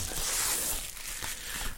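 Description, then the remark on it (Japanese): Crinkly plastic rustling and crackling as bubble wrap is pulled off a bottle of Otokoyama sake from Asahikawa, still in its store packaging, a dense, continuous scratchy texture with a few sharper crackles, fairly loud and with no talking. “さて、今日はですね、お酒を、ちょっとお酒がね、今このプチプチに包まれてるのよ。”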